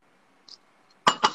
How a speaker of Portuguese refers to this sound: Tchim, tchim, saindo, hein? Saúde. Saúde.